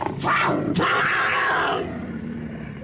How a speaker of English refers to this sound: I can't believe it. That we're in an elevator with a puma?